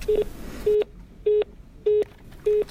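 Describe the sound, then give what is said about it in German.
A phone line's busy tone after an automated appointment line hangs up: five short, identical beeps repeating at a steady, even pace, clear and moderately loud, with no voices. “Sie können aber auch im Internet gucken oder morgen früh anrufen und dann legt es halt auf”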